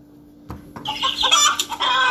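A chicken clucks in a quick, agitated burst of squawky calls, fairly loud, with a brief thump just before it starts.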